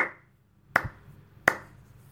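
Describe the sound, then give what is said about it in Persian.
A single person claps slowly in a dark hall: two sharp, crisp claps spaced well apart, each ringing out briefly, with no voices. “صدای کف زدن یک نفر در تاریکی سالن میپیچد”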